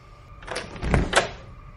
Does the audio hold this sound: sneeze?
no